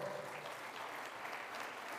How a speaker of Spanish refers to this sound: La iglesia le da palmas fuertes al Señor.